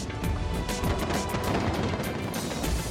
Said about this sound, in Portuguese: Drones dançando no céu. E uma linha de fogos de artifício que parecia não ter fim.